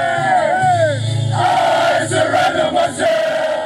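A loud group of 16 Austrian men, arms around each other, sing along to a song after playing a match against Spain, a rough, chanting chorus, their voices blending into one dense, crowd-like roar that carries steadily throughout.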